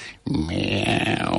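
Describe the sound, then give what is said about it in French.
A person makes a low, drawn-out moaning sound imitating a depressed cat, a single sustained groan that starts abruptly after a brief pause and holds steady, fairly loud. “Non, non, non, attendez, le chat qui déprime, il fait”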